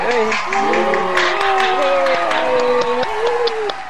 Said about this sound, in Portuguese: Palmas para ele